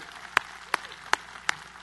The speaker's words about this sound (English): So, we are, first of all, before I get going, why don't we give a, a round of applause for what just took place there?